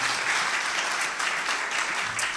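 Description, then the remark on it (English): An audience claps together for the praise team after morning worship in steady, dense applause, a loud continuous wash of many hands with no voices standing out. “Give your praise team a big clap this morning.”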